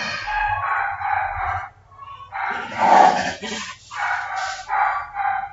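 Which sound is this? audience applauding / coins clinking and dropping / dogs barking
dogs barking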